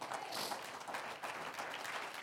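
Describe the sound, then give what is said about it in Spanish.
An audience breaks into steady applause for the Lord during a sermon, a dense crackle of many hands clapping at once, holding an even, lively level throughout without any voices standing out. “Un aplauso al Señor.”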